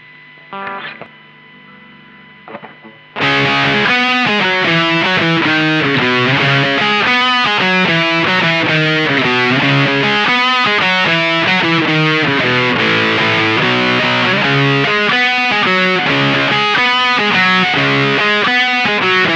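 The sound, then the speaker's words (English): A heavily distorted electric guitar riff kicks in loud after a brief, quieter lead-in, then repeats a choppy, rhythmic pattern at full volume with no voices over it. “So uh, why don't I start us off uh, with this week's first riff?”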